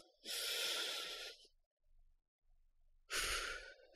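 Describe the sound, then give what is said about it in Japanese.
A voice imitates smoking a cigarette: a long, breathy inhale followed after a pause by a forceful puff of exhaled air, both fairly loud, with no words spoken. “結構なんか他の人の放送とか聞いてて、タバコを吸いながらね、あの放送してる人ってこういるんですけども、どうもね、私ああいうので、こう、タバコのね、今、吹かしてる、こう、音。”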